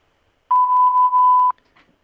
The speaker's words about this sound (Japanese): ただいま、電話に出ることができません。ピンとなったら、ご用件をお話しください。